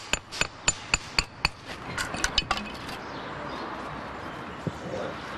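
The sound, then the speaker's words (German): During bricklaying, a hammer taps a brick into mortar to finely align it, with a quick series of sharp, evenly spaced knocks, then several softer, quicker taps before fading into quiet background ambience with one faint knock near the end. “Grobes Ausrichten mit der Hand, dann kommt der Hammer zum Einsatz. Feines Ausrichten. Noch zwei, drei Schläge und dann wieder die Wasserwaage zur Kontrolle.”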